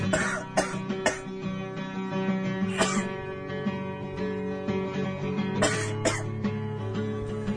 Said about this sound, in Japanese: いやもう、うん、咳がさ、うん、このお茶がさ気管に気管にっていうのかな、うん、分かんないよく気管に、入ってむせちゃってって、本当に気管に入ってるのかなと思うけどね。